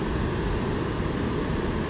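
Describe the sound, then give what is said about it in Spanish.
Steady roar of ocean surf washing onto a beach, a dense, rumbling wash of noise that holds at an even level throughout without distinct individual breakers. “Qué rico escuchar el oleaje.”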